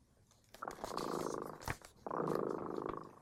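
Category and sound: animal, cat purring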